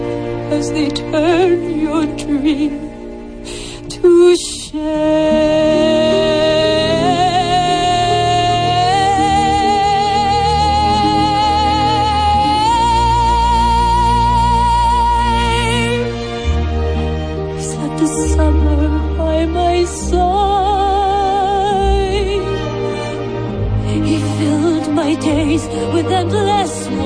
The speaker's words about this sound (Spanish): El momento clave de la película también esta canción desgarrada